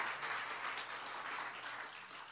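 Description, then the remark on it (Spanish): An audience applauds the Lord during a Christmas sermon, many hands clapping steadily in a dense, continuous wash of noise that holds fairly even in loudness for the whole stretch, with no voices standing out. “Denle un fuerte aplauso al Señor, al Dios Todopoderoso.”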